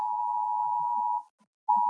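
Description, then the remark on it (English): A loud, steady electronic emergency alert tone from a new phone, a public health stay-at-home order about COVID-19, blares for over a second, breaks off briefly, then starts up again just as strongly, with no voices. “You got an phone emergency alert on your new phone?”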